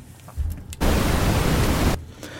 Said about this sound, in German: Die, ähm, das, also es ist ein bisschen weniger voll, wenn ich die unteren rausfilter. Ich nehme meine Brown Noise dann hört man das mehr, weil bei der Brown Noise hatte ich ja fast nur tiefe Töne.